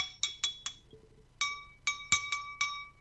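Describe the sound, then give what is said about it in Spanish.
A wine glass half filled with Tannat wine is tapped about eight times in two uneven bursts, each strike giving a bright, high, bell-like ring that fades quickly. There's no talking. “¿Sabe qué es eso? Y una copa.”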